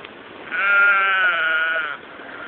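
A single drawn-out goat bleat, loud, wavering for about a second and a half over faint background hiss, with no voices present.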